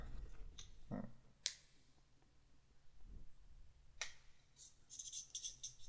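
Faint pens squeak and scratch across paper as quiz players write down answers, with a few sharp clicks and taps scattered through the otherwise quiet, the squeaking growing busier toward the end.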